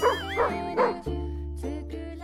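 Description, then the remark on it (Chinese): A dog gives a few loud, high-pitched, wavering yelps and barks, sliding up and down in pitch like whining, over a steady low hum, with a short pause between bursts. “狗是怎么叫的？”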